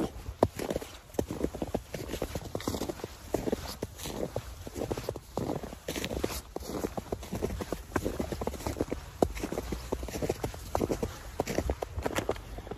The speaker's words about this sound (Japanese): 久しぶりの公園ですねここはねはい雪がいっぱい綺麗に残ってるんで雪を歩こうとお楽しみください